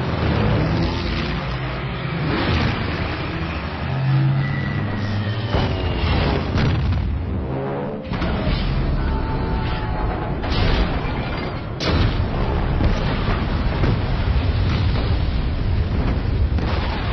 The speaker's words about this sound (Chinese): 有飞机轰炸，快起来！有飞机轰炸，快起来！准备战斗，这不是演习，这不是演习。